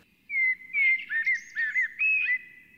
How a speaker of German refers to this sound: so gerade so außerhalb der Innenstadt, kann man also ein richtiges Amselkonzert erleben. Für uns Menschen dann wirkt es sehr feierlich und festlich und angenehm, weil unser Musikempfinden deckt sich fast genau mit, dem, mit den Amselnstrophen.